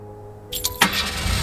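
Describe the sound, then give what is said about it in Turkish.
A car engine starts up: a short clattering crank, then a sudden burst as it catches and settles into a steady low rumble. “hep o dalgın tavrıyla motoru çalıştırdı.”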